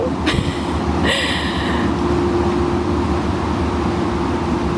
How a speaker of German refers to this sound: es fährt gerade ein Boot vorbei. Ich hoffe auch, dass man das nicht hört. oder nur leise.